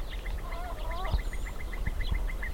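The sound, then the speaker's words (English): Warblers, willets and other birds call together at dusk at a research field station in a small fishing town on the Agiabampo estuary near the Sonora–Sinaloa border, on a calm, still evening: a steady, rapid run of chirps, warbling notes early on, and a brief high whistle, with some low thumps in the background. “It's dusk at the Navopatia field station, and a cacophony of warblers, willets, and other birds fills the otherwise calm, still evening.”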